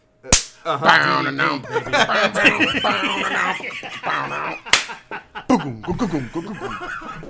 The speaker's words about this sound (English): This is the self high five.